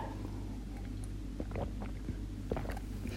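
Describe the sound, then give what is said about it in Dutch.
Someone takes a quick sip of water, with soft gulping and mouth clicks over a steady low background hum, and no talking. “Nou, ik ga even snel een slokje water pakken voordat ik mijn tips met je ga delen.”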